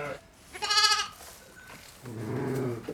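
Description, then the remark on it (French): A farmer's ewes wearing sonnailles (livestock bells) bleat twice: a loud, high, wavering cry, then a lower, longer one. Faint bell tones ring in the gap between them, and no one speaks. “Des sonnailles pour des brebis qui ont du chien”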